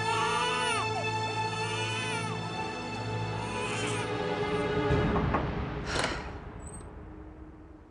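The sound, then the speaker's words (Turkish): A baby cries in long, wailing bursts with rising and falling pitch, loud, continuing for several seconds with no talking, while a woman tries to quiet it by kissing it. “Oduncu bebek sesiyle ağaçların olduğu tarafa bakınca”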